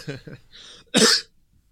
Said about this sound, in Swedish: Och när hostan håller i sig.